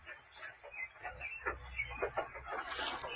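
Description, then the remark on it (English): Birds chirp and sing outdoors in a backyard, a busy scatter of short calls that stay fairly faint over a low background rumble. “I don't know if you can hear the birds. They're all singing.”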